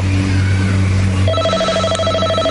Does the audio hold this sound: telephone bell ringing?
yes